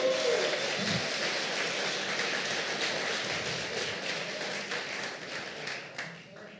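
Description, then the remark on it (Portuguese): An audience gives applause to Jesus, a dense, continuous wash of clapping that holds at a fairly loud, even level for several seconds before easing slightly at the end. “E crê, começa a crer, e dê um aplauso a Jesus por isso.”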